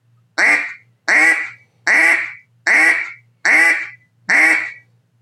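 Six loud, drawn-out quacks blown on a duck call to demonstrate an extended quack, each about half a second long and evenly spaced in a steady rhythm, with no talking.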